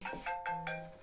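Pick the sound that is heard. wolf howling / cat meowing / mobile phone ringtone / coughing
mobile phone ringtone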